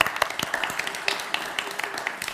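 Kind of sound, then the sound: crowd, audience applause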